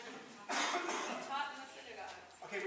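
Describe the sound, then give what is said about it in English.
A rough cough bursts out about half a second in and trails into throaty rasping, with faint voices murmuring underneath, during a class on a Bible passage. “I'm going to cough while you talk to me.”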